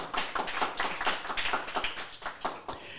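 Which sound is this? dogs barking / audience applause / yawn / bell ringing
audience applause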